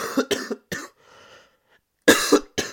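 A loud fit of harsh coughs, several in quick succession, then a brief wheezy breath before two or three more hacking coughs follow. No talking.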